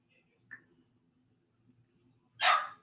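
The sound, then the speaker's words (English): A dog lets out one sharp, loud bark near the end, after a faint short yip earlier, over a quiet low background hum. “shut up, dog.”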